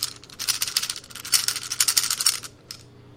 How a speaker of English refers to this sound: Okay as you get close to it, you hear something that sounds like a slight rattle, or a number of rattles. Is, do you think that's snakes?